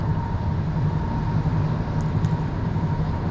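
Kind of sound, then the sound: vehicle, car interior road noise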